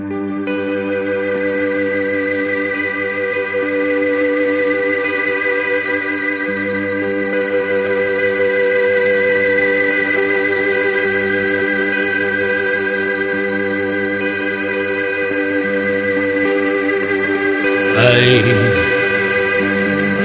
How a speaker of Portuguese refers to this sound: formam esta banda com a estrutura básica de baixo, guitarra e bateria. Pudesse a descomunal energia desta música mudar a cabeça do mundo.